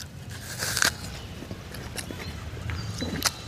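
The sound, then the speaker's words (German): Wet crunching as someone bites into an apple and chews, with a loud crisp bite near the start and another toward the end, and softer mouth sounds between. “weil Apfelessen Wasser im Mund produziert”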